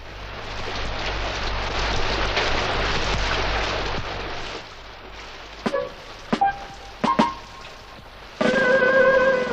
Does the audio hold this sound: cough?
no